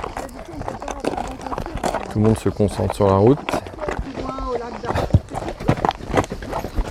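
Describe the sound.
A horse's hooves clop along a hard road in a steady walking rhythm while people talk over the steps throughout.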